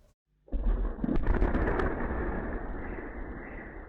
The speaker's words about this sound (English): Surveillance video captured this explosion on Monday in Russia, hundreds of miles from the Ukrainian frontier. The culprit for the deadly blast at the main base for Moscow's long range bombers was a drone, believed to be Ukrainian.